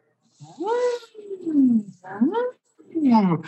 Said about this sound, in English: for those that can hear the specifics, it's as though my voice is revving up and down an engine.